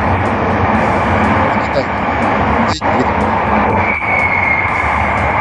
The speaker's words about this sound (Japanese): ごめん、ちょっと電車の音で書き消えた。